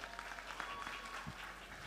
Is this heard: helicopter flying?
no